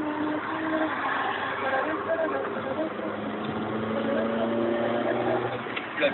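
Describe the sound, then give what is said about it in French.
Muffled, low-fidelity police wiretap recording from inside a moving car of BAC police officers: a steady engine and road drone fills the whole stretch, with faint indistinct voices buried underneath. “Et c'est ça qui est fort, c'est qu'on a l'impression d'être avec eux en voiture.”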